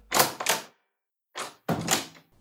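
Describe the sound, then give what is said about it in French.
Someone raps on a door in two quick pairs of loud knocks separated by a short pause, with no voices alongside. “Attends, attends, il y a quelqu'un qui frappe à la porte.”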